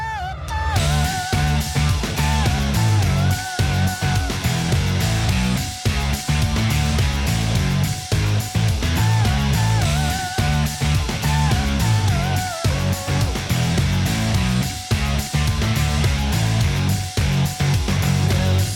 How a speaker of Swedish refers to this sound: Då tar vi finsk eh, musik. Ja, det var nära. Finsk goffmusik. Fortfarande nära, men inte exakt vad jag skrivit där. men, men, ja. Finsk jävla emo!